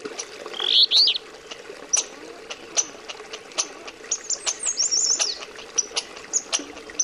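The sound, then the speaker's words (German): Bright, chirping bird calls ring out in short bursts over a soft outdoor background in a wildlife field recording from Alaska, with quick warbling phrases near the start and later, plus scattered sharp clicks and ticks throughout. “Auf ihnen sind unter anderem Sterntaucher zu hören, Eisfrösche, Meisenhäher, Dallschafe oder der Goldwaldsänger, der Sound von Alaska.”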